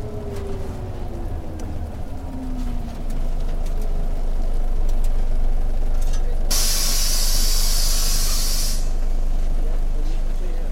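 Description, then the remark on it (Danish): A loud, sharp hiss of bus air brakes bursts out for about two seconds over a steady low engine rumble, with the idling diesel continuing after the release, at a bus station in Brastrup on a rainy morning. “Det er morgen i Brastrup, og det regner. Claus og jeg siger farvel på busstationen. Vi skal med hver vores bus”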